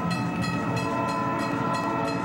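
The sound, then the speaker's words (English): A train rumbles steadily past, a dense, loud roar of wheels on rails with a faint rhythmic clatter repeating about twice a second. No voices are heard. “Around train tracks, being distracted for even a second can really cost you.”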